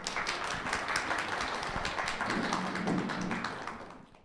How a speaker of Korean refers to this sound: 박수 부탁드리겠습니다.